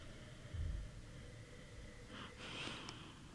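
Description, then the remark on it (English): A soft nasal sniff of wine in a glass held by the stem, a brief breathy inhale through the nose, after a faint low bump, with no talking. “But if you hold it with the stem, there you're actually not impacting the temperature of the wine and just give it a sniff.”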